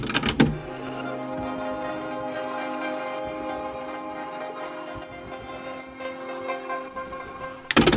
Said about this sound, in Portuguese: Porque a outra coisa que eu tenho para falar dessa música é que o fim dela tem uns efeitinhos meio que uns sons manipulados, reversos.